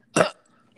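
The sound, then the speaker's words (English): A single short burp erupts, a quick rough burst lasting about a fifth of a second, followed by near silence. “Did you just burp?”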